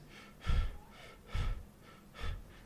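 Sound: imitated heavy breathing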